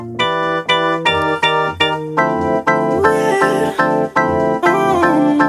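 A loud, upbeat dance music mashup plays with a steady pulsing beat and bright, sustained synth chords, and a wavering sung melody rises over the mix partway through.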